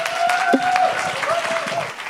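Steady audience applause welcoming a performer at the Fail in Love Nights, a dense wash of many hands clapping at a fairly loud, even level, with a faint sustained tone running underneath and no one speaking.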